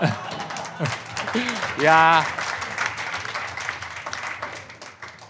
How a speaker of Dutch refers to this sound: je hoort dat nu pas, dat klappen komt er nu pas door. Eh, dat is eigenlijk al heel de aflevering.